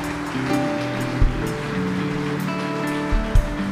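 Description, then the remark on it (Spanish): A crowd claps for the fathers present in a dense, steady wash of applause that holds for several seconds, with a few low thumps breaking through. No one speaks. “Dales un fuerte aplauso.”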